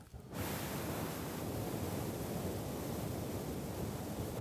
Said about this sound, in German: Je nachdem, welches Mikrofon du hast, hast du mal mehr, mal weniger Grundrauschen in dieser Aufnahme.